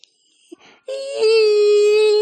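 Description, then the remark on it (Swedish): A voice imitates a whining dental scaler, the dentist's machine for removing tartar from teeth, with a sustained, nasal, high-pitched buzzing tone like a mosquito that swells louder and holds steady, preceded by a couple of short breathy sounds. “Och, och sen så plockar de fram en sån här maskin som låter som en mygga på turbo.”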